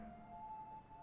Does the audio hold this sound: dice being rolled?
no